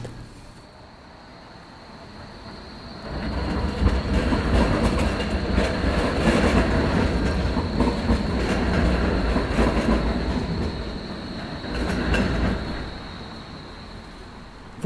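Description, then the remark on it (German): A line 20 tram rolls past on its rails: a low rumble swells in after a few seconds, holds steady with faint clattering and a high steady whine, then surges once more before fading. “Frühmorgens, wenn sie nach Betriebsbeginn ab 5 Uhr alle 10 Minuten an meinem Bett vorbeirollt, hat sie es schon oft geschafft, eingebaut zu werden in”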